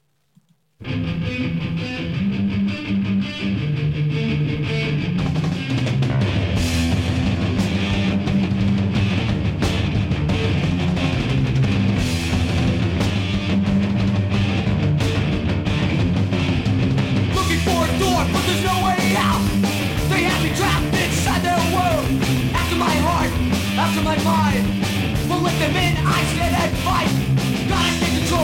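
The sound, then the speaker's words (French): An old-school, youth crew style hardcore punk song kicks in after a second of silence: loud, dense distorted guitars and pounding drums with shouted vocals, the cymbals growing brighter and harsher partway through. “on est sur un punk hardcore, un peu youth crew, euh, assez old school”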